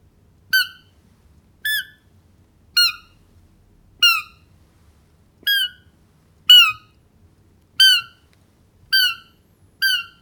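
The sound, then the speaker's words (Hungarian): A roe deer fawn, calling more urgently for its mother after getting no answer, gives nine short, high-pitched squeaky contact calls, evenly spaced about a second apart, each a brief choppy bleat, clear against a quiet background. “Ezek ilyen rövidebb, szaggatottabb hívások így szólnak.”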